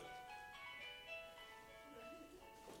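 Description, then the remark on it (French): A mobile phone rings with a bright, melodic electronic ringtone, its tune playing steadily and moderately loud for a few seconds with faint room noise behind it. “c'est le téléphone de Maria, peut-être.”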